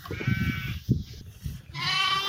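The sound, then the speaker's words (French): Sheep bleating among ewes while a lamb is being made to suckle: a couple of wavering, nasal calls one after another, the second one rising and holding steady, with some low rustling and movement in the background. “On va, emmener au brebis. Maman est essaye de faire têter un agneau.”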